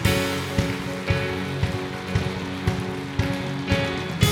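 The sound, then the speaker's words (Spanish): A church audience applauds steadily for Jesus Christ, a dense wash of clapping punctuated by louder unison claps on a regular beat about twice per second, with sustained musical tones underneath and no talking. “Dele fuerte ese aplauso a Jesucristo.”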